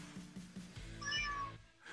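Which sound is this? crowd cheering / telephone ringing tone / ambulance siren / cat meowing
cat meowing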